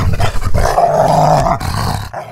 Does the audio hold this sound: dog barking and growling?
yes